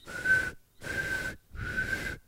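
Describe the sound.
Someone whistles an imitation of a truck's reversing beeper: three even, steady high-pitched tones, each about half a second, with short regular gaps, breathy.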